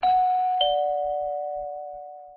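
doorbell ringing

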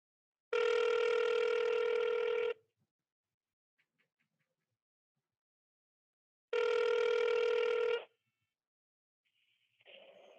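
telephone dialing and ringing

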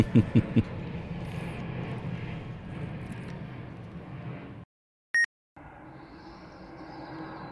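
airplane flying overhead

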